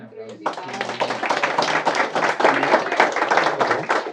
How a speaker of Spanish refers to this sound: Ah, un aplauso.